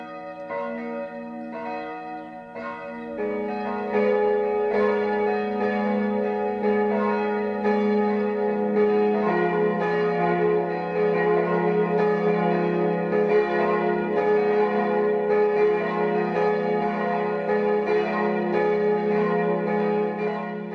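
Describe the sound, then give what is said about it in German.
The church bells of Frauenried in Upper Bavaria ring at 12 noon, a single bell starting alone before more join at about three seconds into a full, steady peal of overlapping strokes that continues loudly throughout, with no voices. “Das Mittagsläuten kommt heute aus Frauenried in Oberbayern.”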